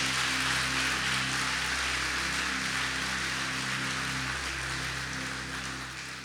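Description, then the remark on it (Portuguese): A church audience applauds God in a dense, steady wash of clapping that holds for several seconds before easing slightly, with a low sustained hum underneath and no voices. “Aplaude a Ele.”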